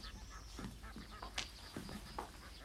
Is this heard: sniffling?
no